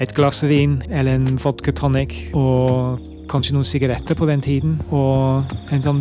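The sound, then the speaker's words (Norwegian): A steady, soft chirring of crickets outdoors in warm weather hums in the background while a person talks continuously in the foreground, the insect sound faint and constant beneath the voice. “Den lyden du hører ute med sånn ehm, Jeg vet ikke hva vi kaller på norsk, men uh, crickets.”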